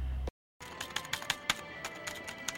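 Quick, uneven clicks of keys being pressed on a computer keyboard that has stopped working after the system crashed, fairly quiet, with a steady hum underneath and no one speaking.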